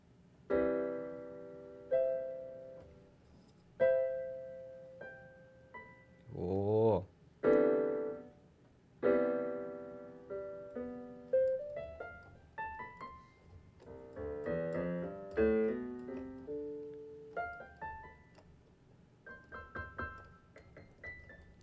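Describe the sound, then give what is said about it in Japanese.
A Casio Casiotone CT-S300 electronic keyboard plays a series of bright, sustained tones and chords, with some quick pitch-bending flourishes and rapid note runs, with no talking. “じゃあ弾いてきますか”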